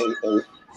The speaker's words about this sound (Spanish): es un teléfono, caballo. No, no, pero bien feo.